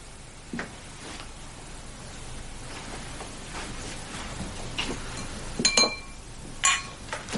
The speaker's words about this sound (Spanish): Alex vuelve a entrar, mientras Santi llena unos vasos con hielo.